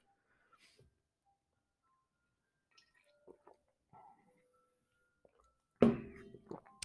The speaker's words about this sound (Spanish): Otro sorbo al café.